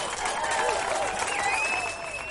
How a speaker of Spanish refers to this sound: Aplausos, muy bien.